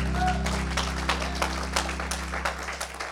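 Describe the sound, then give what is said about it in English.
An audience gives the Lord a clap offering, clapping together in a steady stream of applause, sharp overlapping claps over a low, constant hum, with no voices standing out. “Come on, give the Lord a clap offering tonight.”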